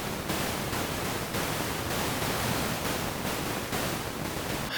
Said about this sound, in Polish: I jeśli mieliście kiedyś do czynienia z taką sytuacją, że ni stąd ni zowąd wasz mikrofon zaczął emitować niestabilny szum o charakterze wybuchowym